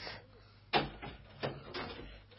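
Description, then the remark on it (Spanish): A few sharp knocks on a door, three distinct raps spaced unevenly over a couple of seconds, against a quiet background hiss. “Y ahora preparémonos, que toca la puerta abriré.”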